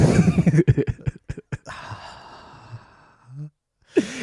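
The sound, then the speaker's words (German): A person imitates Darth Vader's heavy mechanical breathing: a few short puffs, then a long raspy, hissing breath, with brief laughter around it. “ja, und dann machst du schon den Atma dazu.”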